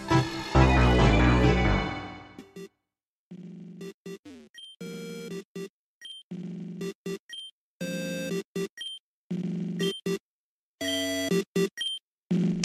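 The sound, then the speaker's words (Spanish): A loud, dense burst of Blue's rival theme music from the first-generation Pokémon video game opens, then gives way to choppy, stuttering bursts of bright electronic tones separated by short silences, with no voices. “Esto fue el tema de Blue del juego de la primera generación de Pokémon, pero probablemente escucharon la versión modificada ya por ahí de la quinta, sexta generación.”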